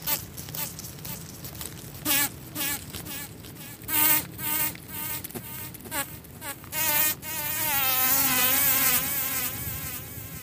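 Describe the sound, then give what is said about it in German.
A fly buzzes around, its drone rising and falling in pitch as it circles and darts, with brief pauses before settling into a steadier, louder whine. “Beginnen wir aber mit einer, die selbst im städtischen Raum immer wieder um uns herumschwirrt.”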